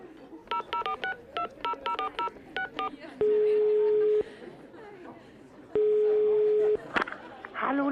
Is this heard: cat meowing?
no